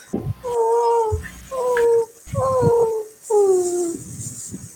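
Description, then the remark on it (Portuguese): A frightened little female dog named Caramelo whimpers in four drawn-out, high-pitched whines with short pauses between them, fairly loud, each cry sliding slightly downward in pitch, with no talking over it. “você tá aprontando com a cadelinha, coitada? Ela tá assustada.”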